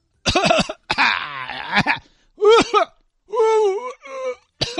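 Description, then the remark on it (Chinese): A man forces loud, exaggerated coughing and hacking during a temperature check, in a series of forced bursts, some drawn out into raspy, voiced retching groans, with short pauses between them. “大哥，你不是咳，你这个是吐，你知道吗？”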